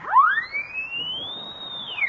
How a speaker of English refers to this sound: Look at this horn. It's got a siren in the mouthpiece. Listen.